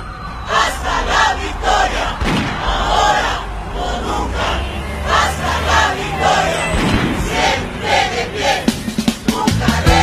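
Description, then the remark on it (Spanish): A large crowd of protesting teachers in Peru, from the 2017 teachers' movement, chants loudly in unison for their dignity, voices rising and falling in a steady rhythm, with sharp rhythmic clapping throughout and occasional dull thumps, continuous. “con amor, con palmas combativas por nuestra dignidad”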